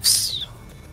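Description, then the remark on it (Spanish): A single sharp, high whistle, made by a person imitating a bullet flying past, sweeps downward in pitch for about half a second, then drops away to quiet background. “Pero bastante patética y escuchas en el suelo. la bala silbando.”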